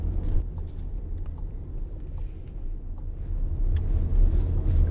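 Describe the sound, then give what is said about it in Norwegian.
A car is started, its engine rumbling steadily and low, building slightly toward the end as the car drives off, with a few faint clicks above the drone and no talking; there is a little rain in the air. “Nå tar jeg og skrur på bilen og kjører på.”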